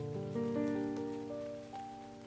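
Steady rain hiss and scattered drops patter continuously at a moderate level, mixed with low sustained droning tones underneath; no one speaks.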